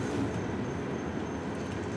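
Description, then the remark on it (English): A freight train rumbles past outside, a steady, dense low-frequency roar with rattling clatter that holds at constant loudness throughout, with no talking. “Yeah, like this, I was gonna say this one sounds like a, a freight train or something.”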